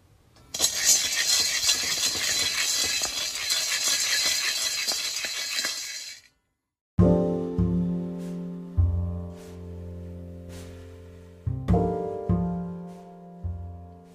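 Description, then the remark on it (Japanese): Beans rattle loudly while roasting, a dense, steady clatter of countless tiny hits for about six seconds. It stops abruptly, and a few ringing musical tones follow. “音のお守り「豆を煎る」”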